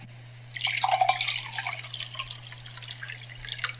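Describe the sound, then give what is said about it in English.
Trader Joe's organic 100% melon juice is poured into a cup, a steady splashing, trickling stream lasting about three seconds before it tapers off, with a faint low hum underneath and no talking. “So I've gotten a cup, and you know what's going to be in that cup? Some Trader Joe's organic 100% melon juice, because melon, because melon.”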